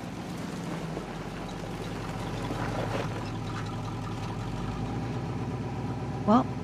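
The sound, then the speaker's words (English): A car engine idles with a steady, low, even rumble that holds throughout, ending with a brief higher-pitched squeak. “Baby's back safe and sound, and we've got some boys to see.”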